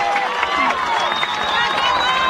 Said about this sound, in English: Siegel fans, as you can hear, rooting on